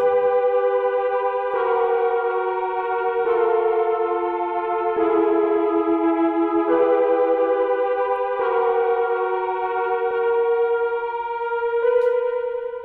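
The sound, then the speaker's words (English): A warped, siren-like synth tone with a rich stack of harmonics, stepping between pitches every couple of seconds in a wavering, steady loud drone with an echoey, processed edge. It is a synth called Belly of the Deep from the Bernard Herrmann Library, used in a film score. No talking. “So I use that because it kind of it sounds like sort of like a siren, like a twisted siren kind of thing.”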